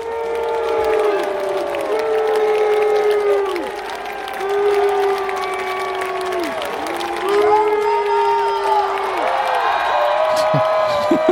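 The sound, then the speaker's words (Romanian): At the start of a singer's concert in Rome, a large crowd chants the singer's name over and over in long, drawn-out, low-pitched calls, each swell held for a couple of seconds, with cheers and whoops rising near the end. “Iar ce s-a auzit la început n-a fost cu el a fost un … prelung.”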